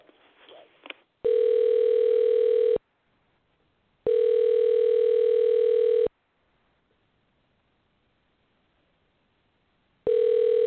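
A brief scratchy burst, then a telephone ringback tone as a woman's number is dialed on an outgoing call: three loud, steady buzzing rings of about two seconds each, separated by long silent pauses.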